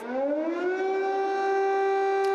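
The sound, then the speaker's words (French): An air raid siren wails in Kyiv, Ukraine, at night, its tone rising steadily then holding a loud, sustained pitch with rich harmonics, sounding alone with no voices. “quand les sirènes sonnent, ce sont des raids aériens avec euh, des avions qui passent.”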